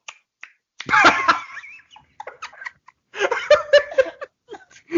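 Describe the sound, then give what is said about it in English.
A voice imitates wet tongue chewing with loud mouth smacks and clicks, coming in irregular bursts with short pauses between them and no words spoken. “My ex broke up with me for chewing my tongue during sex.”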